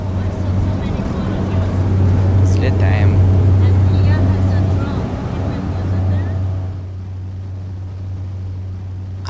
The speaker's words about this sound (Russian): Самолет разговаривает. Это звук легкомоторного самолета Cessna, на котором я лечу на берег озера Туркана.